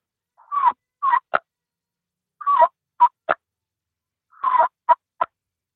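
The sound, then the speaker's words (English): A turkey call produces three short bursts, each a brief rolling purr followed by two or three sharp clucks, repeated with pauses between. The sound is clear and isolated, with no talking. “a little mm-hmm. purr and then just a few clucks, and uh, and then I'll usually go into some some yelping.”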